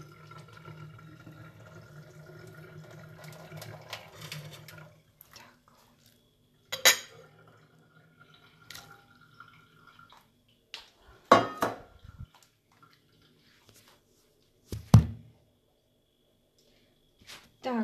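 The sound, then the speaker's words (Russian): A hot pot of noodles clatters while being carried in one hand, a phone in the other: after a few seconds of low rumbling and rattling, three or four sharp metallic clanks ring out at uneven intervals, with quiet handling noise between them. “я несу горячую кастрюлю с э, лапшой, в другой руке телефон.”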